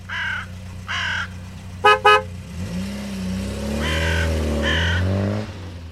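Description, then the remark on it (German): City street traffic: a car horn gives two quick, sharp toots, then an engine revs and pulls away while crows caw repeatedly in harsh bursts overhead. No one speaks. “Vor einer roten Ampel hüpfen sie Kess auf die Straße und legen dort Nüsse ab, damit die Reifen der wieder anfahrenden Autos sie knacken.”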